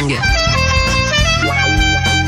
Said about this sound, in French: Allez, jingle.